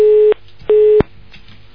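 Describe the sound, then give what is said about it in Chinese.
A telephone busy signal after a dropped call: two steady, mid-pitched beeps of equal length separated by a short gap, sounding alone, with a brief click at the very end. “哎呀，电话跳线了。”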